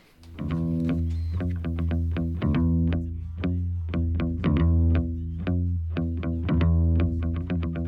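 A music track plays loudly and steadily, with rhythmic, effects-laden electric guitar chords struck in a regular pulse over a sustained low bass, and no voices.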